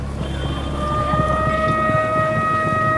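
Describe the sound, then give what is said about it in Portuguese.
Distant Egyptian bugles on the road hold a long, steady brass call that rises in from faint to moderate, giving the signal for all the chariots to resume their march at once, carried over a low, constant rumble of engines. No one speaks. “Lá ao fundo, na estrada, estão a tocar cornetas egípcias, dando o sinal sonoro para que todos os carros retomem a marcha em simultâneo.”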